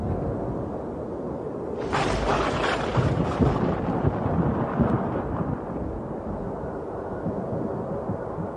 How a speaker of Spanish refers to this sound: Porque después en el capítulo 38, la tormenta que se escuchaba, Dios empieza a hablar desde allí.